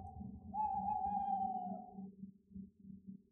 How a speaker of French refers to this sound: Il commence à paniquer. un hibou, un hibou, il faut se cacher, il faut se cacher.